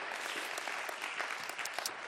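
An audience applauds, a dense, steady clatter of many hands clapping at once, with sharper individual claps standing out from the continuous wash of sound.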